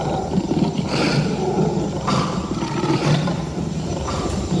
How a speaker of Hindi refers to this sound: खरगोश की बात सुनकर शेर भासुरक को बहुत ही गुस्सा आया और वह बार बार गरजने लगा